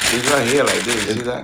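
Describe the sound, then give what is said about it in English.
A plastic bag crinkles close to the microphone as a man sits among boxes, a steady rustle of sharp little pops running underneath his voice as he talks over it. “no, no, that's a plastic bag here.”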